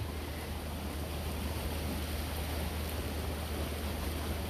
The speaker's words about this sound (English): It's been raining quite, uh, quite a bit today, so the stream is running quite strong. The current is fast, and I can tell by the way that the water is a lot more uh, murky. It's not as clear as it is on a nice calm day.